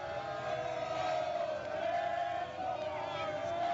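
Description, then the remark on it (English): A big crowd of football fans doing the Skol chant, a loud, sustained mass of voices roaring together in unison with only a brief dip partway through. “They're Skol chanting him right now.”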